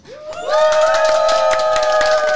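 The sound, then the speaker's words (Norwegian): An audience bursts into applause and cheering, with a loud sustained whoop rising over dense, steady clapping that holds at full volume to the end. “Og så må vi si et rungende takk til det publikummet som nå skal lage masse lyd.”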